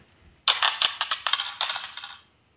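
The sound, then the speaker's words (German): Dice are rolled, a quick run of bright, hard clicks and clatters for nearly two seconds that gradually slow and soften as they settle, landing on a three. No one speaks over it. “So, würfel mal.”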